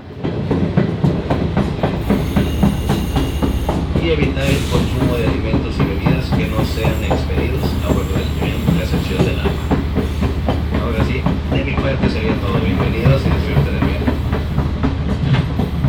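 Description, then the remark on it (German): Interior of a moving train: a steady low rumble with rapid rhythmic clatter of the carriage over the rails, continuous and fairly loud for the whole stretch, with no clear voices. “Und wir befinden uns, äh, das ist, glaube ich, unschwer zu erkennen, in einem Zug.”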